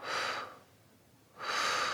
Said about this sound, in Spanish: Y sueltas. Última vez, inhalo. Y exhalo.